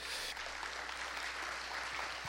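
An audience claps for the Lord during a morning sermon in a dense, steady wash of applause, many hands blending into continuous crackling noise with no voices standing out.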